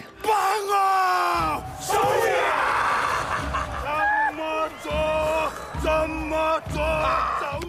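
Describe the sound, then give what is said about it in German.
The men of the American Samoa football team shout a loud, rhythmic battle cry just before a match, their voices bellowing together in strong repeated bursts with short pauses between, forceful. “Ja, so klingt es, wenn die Fußballmannschaft von amerikanisch Samoa kurz vor einem Spiel steht und sich nochmal Mut und den Gegnern Angst einflößen will.”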